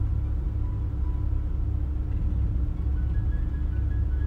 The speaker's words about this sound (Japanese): 横にハーレー・ダビッドソンが来てダダダダダダと音がして入ってると思いますけどね